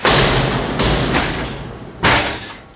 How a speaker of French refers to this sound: Cette fois, la moitié supérieure de la porte fut enfoncée sous le nouvel impact.